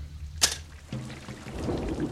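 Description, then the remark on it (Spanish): Steady rain falls at night, hissing in the background, broken by a sharp, sudden crack early on, then a low rumbling texture swells beneath the downpour. “Qué noche tan desapacible. Llueve.”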